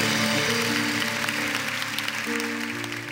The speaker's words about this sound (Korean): 사망의 원세를 깨뜨리고 부활하신 우리 주님께 우리 영광의 박수를 올려드리겠습니다